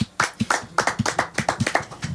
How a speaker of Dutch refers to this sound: Hans Plomp, applaus, dankjewel.